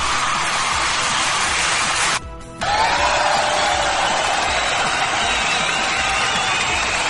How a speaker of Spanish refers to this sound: Eh, Efecto de sonido, por favor. por favor, por favor, necesito, necesito, necesito aplausos.